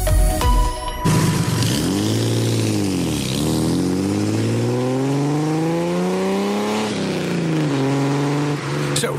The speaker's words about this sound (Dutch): Ja, geluid hè, van de Datsun 240Z.